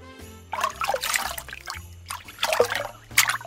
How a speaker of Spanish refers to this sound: Mm, ah, ah, no, eso es agua.